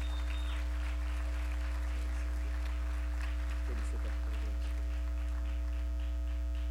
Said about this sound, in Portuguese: Aplauda ao Senhor pela vida desse homem de Deus.